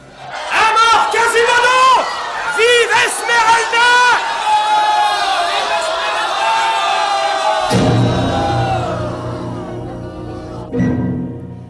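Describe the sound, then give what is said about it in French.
A crowd of truands surges forward to climb a ladder set against a balustrade, many voices shouting and yelling over one another, loud and continuous, with a heavy low rumble of bodies joining in near the end before the noise thins out. “À la suite de Jean Frollo, la foule des truands se pressa pour gravir les roides échelons.”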